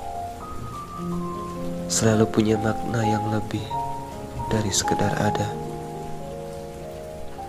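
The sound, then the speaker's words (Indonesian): Steady rain hisses softly in the background while a voice speaks calmly over it, with sustained soft tones lingering underneath throughout. “Terutama saat serenade hujan mulai mengalun”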